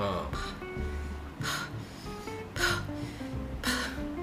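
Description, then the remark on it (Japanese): A voice imitates the raspy, breathy whisper of the badly burned mother in the film Pearl after she falls into the basement: three harsh, airy exhalations spaced about a second apart, moderately loud over faint low background noise. “うん、あとエンディングのさ最後にタイトル「パール」って出るまでの間にさ、うんってさ、うん、あの大やけどって地下室に転げ落ちたお母さんが出してた吐息みたいなのが最後なんて言ってんのかなって言ったら、うん、ああれパールって言ってたんだねってなるよね。”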